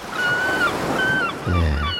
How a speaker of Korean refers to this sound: 한 번 더 들려드릴게요. 갈매기 소리.